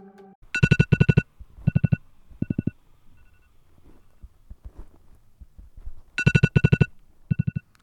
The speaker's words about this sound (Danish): Klokken er nu 7.30. Trætheden og vreden over min alarm bliver nu erstattet med stress.